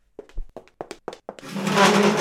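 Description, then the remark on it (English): A chair gives way under a person with a quick run of sharp wooden cracks and knocks, then collapses into a loud, sustained crashing clatter as the chair and person fall. No one speaks. “Stupid chair broke.”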